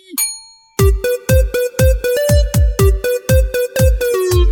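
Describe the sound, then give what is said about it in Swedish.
A voice, from a person holding a hand over the mouth, mimics a ding-dong chime, singing a quick, steady run of about a dozen bright, ringing notes, loud, after a short opening tone. “Och eh, nu står du med handen för munnen här mm. och är redo.”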